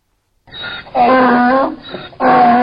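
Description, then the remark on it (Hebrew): A donkey brays in a loud hee-haw, alternating a thinner wheezy intake with strong, harsh tonal blasts, repeating twice over a couple of seconds. “כל חמור.”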